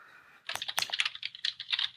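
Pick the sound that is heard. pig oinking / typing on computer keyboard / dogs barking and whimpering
typing on computer keyboard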